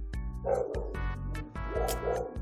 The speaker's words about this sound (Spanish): o pues se escucharon unos chuchos ladrando